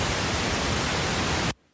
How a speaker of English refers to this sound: Pink noise